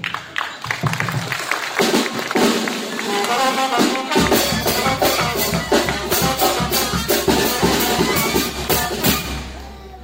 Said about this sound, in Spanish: El obispo Raúl Vera López. Si vamos con un aplauso.